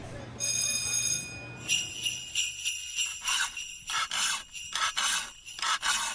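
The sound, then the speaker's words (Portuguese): Repeated rasping metal strokes of a file sharpening a brush cutter blade before a day of forest thinning in Provença Nova, Portugal, about a dozen rhythmic scrapes with a bright ringing edge, fairly loud, with no talking. “Afiam-se as lâminas da moto roçadora e verificam-se os níveis de combustível, porque vai começar mais uma jornada de desbaste na floresta de Provença Nova.”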